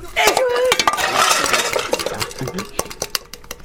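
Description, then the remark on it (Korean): A blackened metal pot clanking and scraping as it is handled and scrubbed, with busy clinks, scratchy rubbing and sharp knocks, no voices. “잠깐 사이에 냄비가 이렇게 새까맣다니.”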